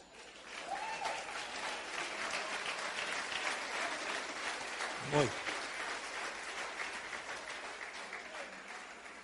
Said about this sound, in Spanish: Dale de palmas al Señor.